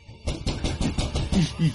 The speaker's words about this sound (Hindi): वो अपने दोनों हाथों से उस दरवाजे को पीटने लगे